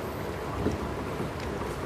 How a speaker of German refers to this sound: Zum Beispiel ein Sound, hier ist eine Schleuse, die hört man ja am Rauschen im Hintergrund.